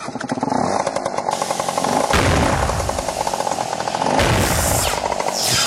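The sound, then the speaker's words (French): A small derestricted scooter engine revs hard with a loud, rough, rattling buzz, surging in waves for several seconds before it sputters out as the engine gives out. No voices are heard. “Oh non, le moteur vient de lâcher, l'expérience est un échec.”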